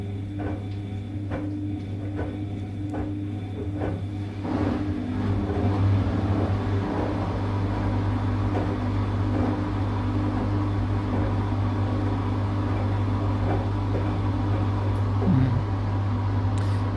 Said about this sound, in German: Natürlich die Waschmaschine führt einen zurück in die Kindheit, führt einen zurück natürlich zur Assoziation zur, zur Mutter äh, oder zu Eltern, zu, zu jemandem, der sich um einen kümmert.